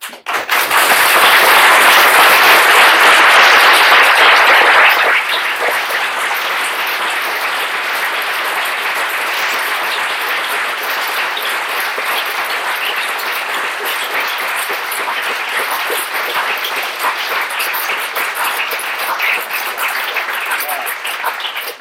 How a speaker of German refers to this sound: ich finde, also dieser Applaus, der verdient der Verein hier.